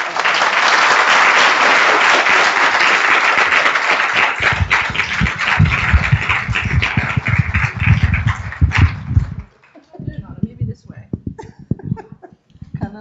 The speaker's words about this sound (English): So I will let King Peggy tell you the rest of the story. Let's have a warm round of applause.